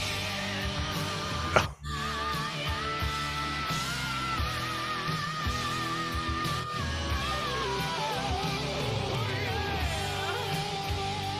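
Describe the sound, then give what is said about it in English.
A rock singer belts a sliding, soaring melody over a loud, dense band, the voice swooping between high and lower notes; a brief dropout breaks the sound near the start. “he's got an amazing range, man. Uh, he's a he's, good singer, dude. He's got pipes.”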